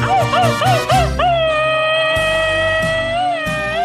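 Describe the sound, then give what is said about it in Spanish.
A rapid-fire Mexican grito: a quick burst of about five sharp, high yipping cries, then one loud, long wavering wail held for several seconds, with no talking. “Bueno, y aprovecho ese grito ametralladora para saludar a la gente que es originaria de Cuernavaca, Morelos.”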